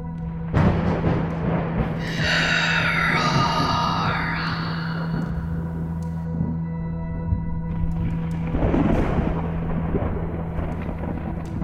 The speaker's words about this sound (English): body shakes in the way that it does when a really bad thunderstorm is happening right outside your house and the thunder booms and you just feel it in everything in you. And in between those peals of deafening thunder inside of your head, you hear.